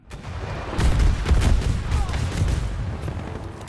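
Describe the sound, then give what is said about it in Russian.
A rapid barrage of heavy explosions in a Battlefield video game, booming and overlapping with deep low-end rumble, loud and continuous for several seconds like an artillery bombardment. “Например, мне очень заходят их сочные взрывы.”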